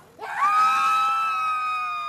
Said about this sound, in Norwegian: Skriktoget i går markerte starten på Edvard Munchs 150-årsjubileum i Løten neste år.